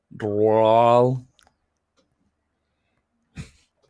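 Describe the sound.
A voice produces one drawn-out, garbled vocal phrase, a person saying it backwards to mimic speech played in reverse without playing a recording. Silence follows, then a brief breathy burst near the end.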